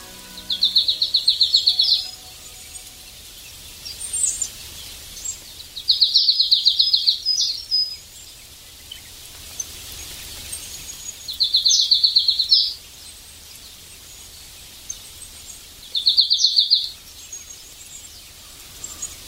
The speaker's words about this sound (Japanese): 森の中は小鳥の気配で満ち溢れていました聞こえてきたのはハシブトガラのさえずりです